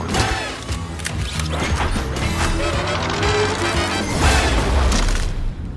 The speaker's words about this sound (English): All you gotta do is knock down that spaceship there.